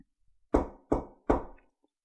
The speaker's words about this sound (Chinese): 刘成伟坐在沙发上研究上市材料，听见有人敲房门，接着就看到他秘书推门进来